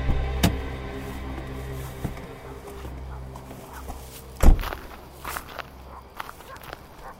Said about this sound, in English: I got out of the car, walked to the door.